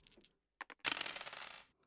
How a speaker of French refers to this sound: Lance les dés